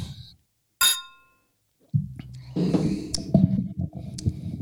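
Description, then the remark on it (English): Glasses of dark reddish-brown ale clink together once in a toast, a sharp bright ring that briefly lingers, followed by muffled handling and swallowing-like sounds. “Well, cheers it up. Cheers.”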